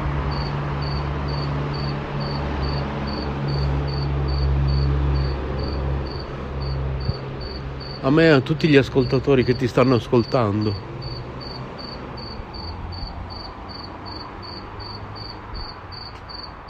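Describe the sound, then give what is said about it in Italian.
A lone cricket chirps steadily in a fast, even pulse, running continuously over a low background hum, while a man talks briefly partway through. “È un grillo solitario.”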